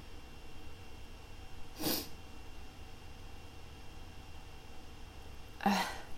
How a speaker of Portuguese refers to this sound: droga, perdi o espirro. Gente, eu tenho pavor de perder espirro, gente. Ó. Ai, que agonia.